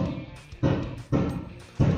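Three heavy, muffled booms land about half a second apart, each hitting hard and then rumbling away, as fireworks go off outside around 6 pm while it is still light, heard through a closed door.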